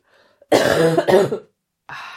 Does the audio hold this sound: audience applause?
no